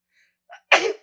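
A single loud sneeze, preceded by a quick sharp intake of breath, ending abruptly with no talking.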